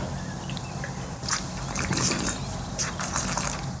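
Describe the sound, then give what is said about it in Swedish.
Sips and slurps of wine by people after a toast, several short wet bursts in a loose sequence over a low background hum, with no one talking. “Ska vi smarra lite? Det tycker ja. jag. Ja, skål. Skål.”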